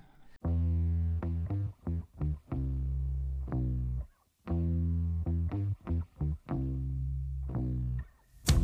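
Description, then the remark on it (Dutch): A loud, gritty distorted bass riff plays alone, a chugging phrase of held and quick repeated notes heard twice in a row, then a brief sound at the very end. “Het begint met die baslijn.”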